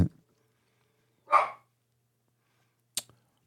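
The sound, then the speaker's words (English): A dog barks a couple of times, short sharp barks spaced apart with silence between, with no talking. “You got dogs barking? I do.”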